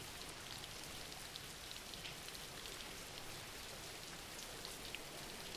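Steady rain falls without pause, a dense hiss with scattered brighter drop taps across the top, fairly quiet and even throughout, with no voices.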